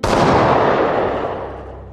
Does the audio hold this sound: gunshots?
yes